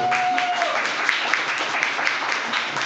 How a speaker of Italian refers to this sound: Un applauso, grazie.